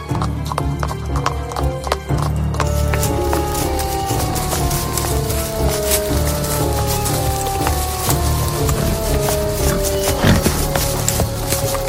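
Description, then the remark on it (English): Horse hooves clip-clop steadily and loudly, a quick continuous beat of hoofbeats like riders galloping, with a horse whinnying briefly over the rhythm. “And thus they set out on their horses, without any soldiers, as they did not want to make the sage angrier.”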